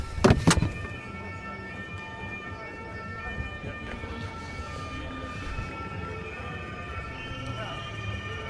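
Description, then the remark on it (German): The VfB Stuttgart team bus rumbles past in a cordoned-off area with a steady, droning engine and a faint tonal hum, opening with a brief loud knock before the low, continuous vehicle noise carries on. “So, man hört es wahrscheinlich noch ein bisschen. Das ist der Stuttgarter Mannschaftsbus.”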